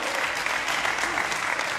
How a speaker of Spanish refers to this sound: Ah, alguien tiene que emocionarse y aplaudir fuerte por eso, porque cuando conoces a Jesús puedes decir he sido purificado.